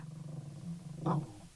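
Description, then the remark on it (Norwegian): A dog named Morse growls low and steadily, the rumble swelling into a louder, rougher burst just before the end. No one speaks. “Det er hunden min, Morse, som nå har fått noe for seg.”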